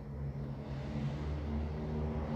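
Another motorcycle, coming from far off, passes by, its engine droning steadily with a low, buzzing hum, fairly loud throughout, with no voices.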